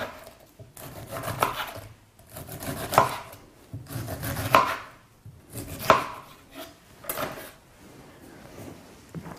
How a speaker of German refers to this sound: Mit der Ananas fangen wir auch direkt an. schneiden Sie einfach ganz schnell und fix in kleine Würfel.